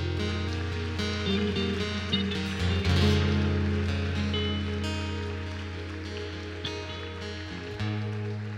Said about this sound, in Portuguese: Aplauda ao nome do Senhor.